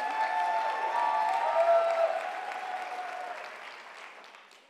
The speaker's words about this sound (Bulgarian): Ако ръкопляскаш, ръкопляскай за Исус. Ако викаш, викай за Исус.